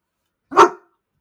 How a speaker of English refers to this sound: Did you hear the tiny little woof at the end?